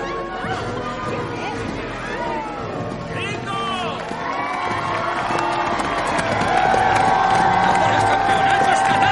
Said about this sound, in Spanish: observa a la multitud, que camina con globos y pancartas.